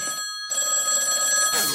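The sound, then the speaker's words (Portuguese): The Antena da Barata telephone rings loudly in two bright, electronic-sounding bursts separated by a short pause, ending in a brief rush of noise. No one speaks. “Telefone da antena da barata.”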